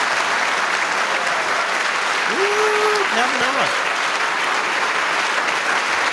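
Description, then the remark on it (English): A large crowd applauds steadily and loudly without letup, a dense wash of clapping, with a brief vocal shout or cheer rising over it midway, after Trump announces he will nominate Judge Brett Kavanaugh to the United States Supreme Court. “He got these guys to clap for like a solid 90 seconds.”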